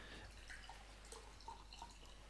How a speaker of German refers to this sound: ich, trinke auch übrigens nebenbei was. Also ich schenke mal was.